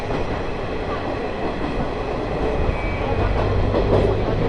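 The Ai Yoshinogawa Torokko sightseeing trolley train on the Tokushima Line, running from Awa-Ikeda to Sadamitsu, rumbles steadily along the rails, a dense, continuous roar with a faint rhythmic clatter of wheels and a thin high whine running through it.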